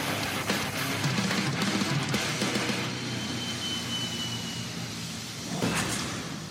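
A whooshing transition effect with a steady, airplane-like roar, broad and fairly loud, carrying some rattly textures early on and swelling briefly again near the end. No one speaks.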